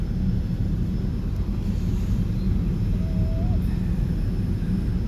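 A steady, dense low-frequency drone of airplane engines fills the cabin throughout on a flight to Dubai, a constant rumbling hum with a faint high whine above it and no pauses.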